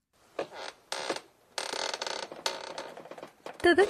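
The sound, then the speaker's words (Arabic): Wooden floorboards in a music room creak in a series of drawn-out groans, several separate strains with short pauses between, ending in a sharper, louder squeak. Moderately loud, with no talking. “تذكرت صرير الارضيه الخشبيه في غرفه الموسيقى حيث كانت تتدرب على عزف البيانو بعد انتهاء اليوم الدراسي”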